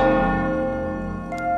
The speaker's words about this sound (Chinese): 钟声再次的响起，以下二十秒，便是你要放宽胸怀、心甘情愿、毫不忍耐的时刻。